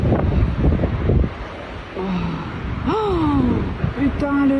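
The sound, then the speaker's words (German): Tornado winds tear the roof off a house in the French Jura near the Swiss border, roaring as a continuous, loud rush of noise that batters the microphone, while people cry out and gasp in alarm partway through. “Da hört man, wie ein Tornado gerade das Dach von einem Wohnhaus weglupft.”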